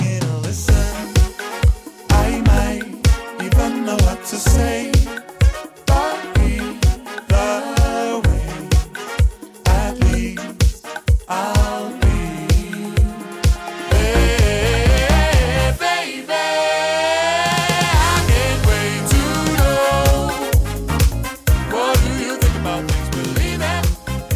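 An original Icelandic Eurovision song plays loudly with a pounding, steady kick-drum beat and dense synth layers, shifting midway into a sustained, swirling vocal-and-synth passage before the beat returns.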